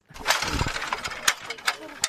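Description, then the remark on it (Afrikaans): A low, laboring tractor engine rumbles, its growl swelling and easing, with sharp metallic clatters and knocks punctuating the steady mechanical drone, as tractors haul loads of apples from the orchard to the packhouses. “Die vrugteplikkers wikkel rats met hulle lere tussen die appelbome met die rooi wangvrugte trekkers kreun na die pakkamers met die vragte vrugte.”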